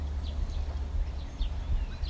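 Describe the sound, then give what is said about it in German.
Several short, high bird chirps sound over a steady low outdoor rumble, scattered irregularly with no voices present. “Ich verabschiede mich mit dem Vogelzwitschern.”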